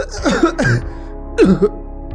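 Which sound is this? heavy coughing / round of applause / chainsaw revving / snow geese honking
heavy coughing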